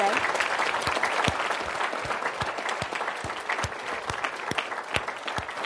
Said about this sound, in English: Uh, we are wrapping up. So, can I get a big round of applause, please, for our panelists